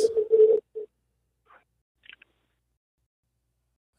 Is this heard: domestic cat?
no